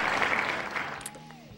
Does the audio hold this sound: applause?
yes